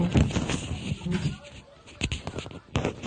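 Clattering, thumping movement as a chair is pulled back and scraped across the floor, with a few sharp knocks and rustles in bursts.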